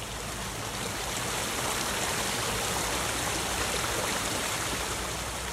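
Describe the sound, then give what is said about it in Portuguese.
A waterfall roars inside a cave, echoing through it in a steady, unbroken rush of white noise, constant and fairly loud throughout, with no voices or other sounds breaking through. “O som de cachoeira ecoa através da caverna, o que torna difícil a escuta neste ambiente.”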